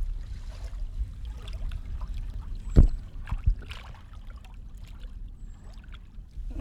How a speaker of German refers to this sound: Wollt ihr noch ein bisschen Ostseegeplätscher hören? Warte, ich lasse euch noch mal was her.